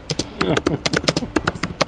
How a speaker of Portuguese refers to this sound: que tá alguém espancando o teclado aí.